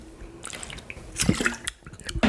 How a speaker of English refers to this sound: Let me get some water. I'm over swallowing some dry spit over here.